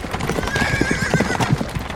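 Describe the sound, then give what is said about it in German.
Horse hooves trample the ground on a country estate near Pompeii in a dense, irregular clatter, with a horse whinnying partway through; steady and fairly loud, with no talking. “Hufe von Pferden trampeln über den Boden, die Unruhe steigt.”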